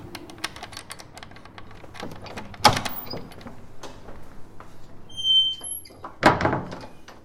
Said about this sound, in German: Schlüssel in Haustür.